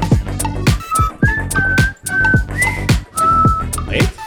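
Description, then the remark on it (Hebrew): A person whistles a short melody of clear, held notes that rise and dip in pitch, fairly loud, with soft rhythmic thumps underneath and no talking. “וואו. את שורקת אה, פנימה או החוצה? איך את שורקת?”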